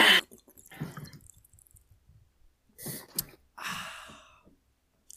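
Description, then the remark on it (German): Sipping and swallowing water, followed by a sharp exhale and a breathy sigh of satisfaction, with small wet mouth noises in between and no talking. “Sehr schönes Wasser hier, ja?”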